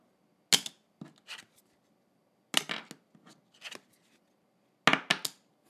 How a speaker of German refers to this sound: Ähm, das andere, was ich hier habe, ist meine Bahncard. Ähm, die lasse ich mal fallen. Versuch mal hinzuhören. Ja.